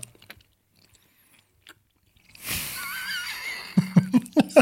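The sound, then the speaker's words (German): Someone chews a long, orange, crinkly crunchy snack shaped like a drill bit, starting with a rustly, crackling stretch and then five loud, rhythmic crunches in quick succession. No one speaks. “Aber das ist immer geil, im Podcast immer zu essen, Leute.”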